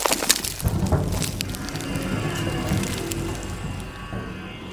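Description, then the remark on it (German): Heard from inside a small hole: sharp cracks and clatters of falling stones open over a deep, continuous rumble, with a strained metallic creaking droning underneath as the debris noise gradually settles but never fully stops. “Ich habe keine Ahnung, wie viel Zeit vergangen ist als ein grausiges Knarren von Metall mich aus meiner Stille reißt und mein kleines Loch mit Lärm erfüllt, gefolgt von dem Poltern herabfallender Steine.”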